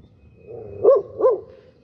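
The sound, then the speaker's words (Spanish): A dog gives two quick, mid-pitched barks in a row, loud and clear over faint background noise, with no one talking. “Dile al perro, güey. No es carro.”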